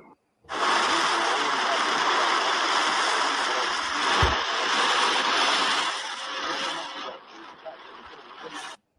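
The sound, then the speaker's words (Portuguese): Heavy storm rain on Beira-Mar Norte pours down in a dense, steady roar that starts abruptly, holds constant for several seconds, then thins slightly before cutting off. “Barulho da chuva, rapaziada.”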